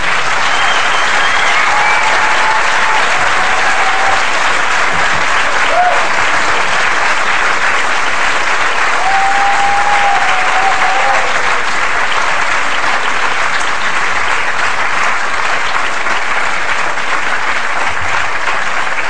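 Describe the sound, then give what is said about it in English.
Sustained applause from a large audience at a Fawcett event thanking the speakers Harriet Harman, Lynne Featherstone and Theresa May, a dense, steady wash of clapping with a few faint cheers or whistles rising above it. “I heard that applause drives you on.”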